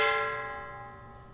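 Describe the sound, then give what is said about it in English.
A single strike on a traditional Chinese temple gong from around the 1880s, a bright metallic hit followed by a sustained shimmering ring that slowly fades, heard alone. “So the interesting thing is the gong itself is a traditional Chinese temple gong.”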